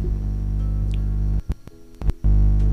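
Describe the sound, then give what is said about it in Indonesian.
A steady, buzzy telephone ringback tone drones loudly while a caller waits for the person being called to pick up, cuts out briefly with a few clicks, then starts again, with no voices present. “Masih tutut harusnya pakai nada sambung ini biar keren gitu loh”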